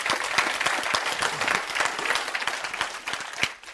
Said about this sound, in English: It is Christ and Christ alone. I'll wait while you clap.